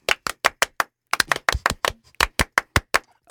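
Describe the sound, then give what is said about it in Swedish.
Rhythmic, French-style applause welcoming studio guests: sharp claps struck together at a steady, even pace, a run of five, a brief pause, then a longer sequence of crisp, loud claps in time. “Ska vi ge dem en fransk applåd kanske?”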